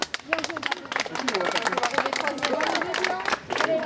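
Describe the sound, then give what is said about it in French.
An audience at a results announcement breaks into sustained applause for the team finishing fourth, dense overlapping claps at a steady loud level with some crowd voices and cheers mixed in throughout. “on peut applaudir.”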